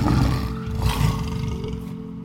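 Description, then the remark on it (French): A lion gives a deep, rumbling roar that sustains for a couple of seconds, loud, with a low growling texture and no voices. “une biche, un lion et une lionne c'est sa galerie vivante de modèles.”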